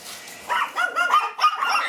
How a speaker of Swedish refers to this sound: Jag hör hur de skäller och då går jag in i hundrummet